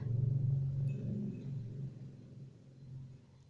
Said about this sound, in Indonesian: tuh udah ada motor wae jadi suaranya teh kalah ketutup sama suara knalpot motor akunya jadi pengen marah-marah ini teh sekarang teh udah dulu lahnya kesel sama yang lewat tuh